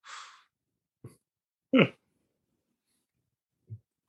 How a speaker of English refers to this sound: Oh man, yawning.